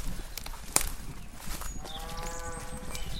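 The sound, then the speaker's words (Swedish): Cattle moo on open pasture, one drawn-out lowing call rising in the second half over steady outdoor background noise, with a sharp click shortly before it. No one speaks. “Vad har du korna till mer än att de ska beta av då?”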